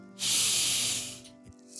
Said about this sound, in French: Je prends une grande inspiration